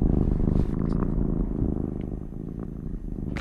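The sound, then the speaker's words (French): A cat purrs steadily, a low continuous rumbling drone with a gentle pulsing rhythm, heard alone without any talking. “Et pourtant, ce qu'on sait, c'est que le ronronnement, ça fait du bien.”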